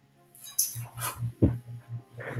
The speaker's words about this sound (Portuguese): É, dá um calmante para esse cachorro parar de brigar e, e latir, por favor.